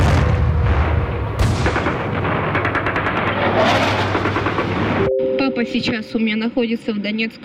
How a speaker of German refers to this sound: Es ist so laut bei uns. Ich höre, wie die Raketen fliegen, wie die Abwehrsysteme arbeiten. Der Boden bebt bei uns.